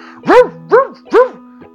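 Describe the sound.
A person imitates a dog barking, giving three loud, evenly spaced woofs, followed by a faint short sound at the end.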